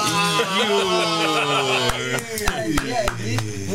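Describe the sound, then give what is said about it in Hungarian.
A Spitfire Mk IX's Merlin inline engine drones steadily, its two-stage supercharger adding a high whine over the roar, while sharp, rapid cracks punctuate the second half. “ugye a kettős kompresszornak ez a jellegzetes hűvítő hang”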